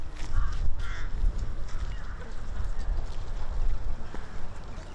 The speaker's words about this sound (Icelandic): þetta er svolítið svona eins og einhvers konar bara heimsenda tilfinning að vera þarna, horfa blokkinnar svona og svo ekkert nefn svona til að toppa að þá eru krákur fljúandi kring, krunkandi.